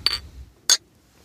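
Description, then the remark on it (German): Two bright glass clinks ring out about half a second apart, crisp, as glasses are clinked together in a toast, with a low murmur of room noise underneath between them. “Ja, Prost.”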